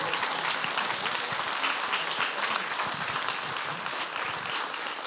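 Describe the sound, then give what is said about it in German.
Sustained applause from an audience giving a round of applause to the Lord, a dense, steady wash of many hands clapping at once with no pause, fairly loud throughout. “Und jetzt geben wir einfach nochmal einen Applaus unserem Herrn.”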